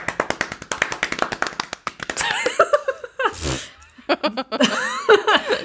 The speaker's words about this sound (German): Wo gibt es diesen äh, Applaus, den man einblenden kann?